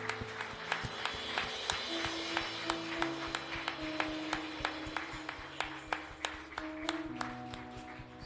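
An audience claps in a steady, even rhythm, about two or three claps per second, over sustained low keyboard-like tones, with no talking, giving a loud round of applause to the Lord Jesus during worship.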